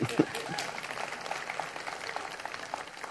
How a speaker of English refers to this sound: Yeah, you can clap for that because that's true.